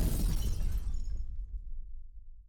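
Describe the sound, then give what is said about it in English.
A small explosion inside a machine, after a metal pipe is shoved into its center, bursts out with a crackling, shattering burst across the whole range, then fades over a couple of seconds into a low, lingering rumble. No voices. “The hum died, and from the inside of the brain itself, they all heard and felt a small explosion.”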